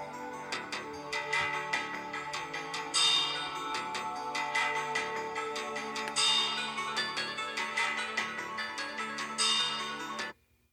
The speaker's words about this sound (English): I I love the soundtrack to this game.